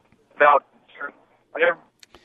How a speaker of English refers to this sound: You're breaking up a little bit. I sound like you're on a cell phone and your service isn't working.